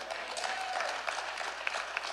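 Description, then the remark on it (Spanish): An audience applauds steadily, a dense wash of many hands clapping with a few sharper individual claps popping out, fairly quiet and continuous with no talking over it. “Denle un aplauso más fuerte que él se lo merece porque le dejó la palabra de Dios.”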